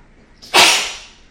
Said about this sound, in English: Hold on, i am sorry, I keep sneezing. Hang on.